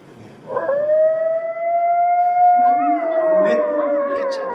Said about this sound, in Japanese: あ、あーっていうね、こういうね、まあちょっとサウンドエフェクトが入っておりますけども、コヨーテの遠吠えがですね、聞こえる。